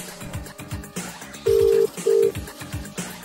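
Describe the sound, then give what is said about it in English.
A telephone ringback tone on an outgoing call sounds once as a loud, steady double buzz, two short pulses close together, over rhythmic background music. “Come on, ring, ring. It's ringing.”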